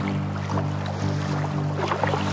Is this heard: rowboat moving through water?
yes